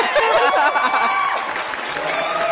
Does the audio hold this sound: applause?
yes